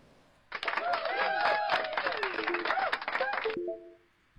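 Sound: audience applause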